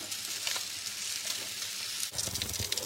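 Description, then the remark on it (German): Steady, dense sizzling of sausages on a column grill (Säulengrill), a continuous crackling hiss with scattered pops, briefly dipping before swelling again with slightly louder bursts. No one speaks. “So, dann müssen noch die Würstchen fertig sein. Ich benutze ja so einen Säulengrill.”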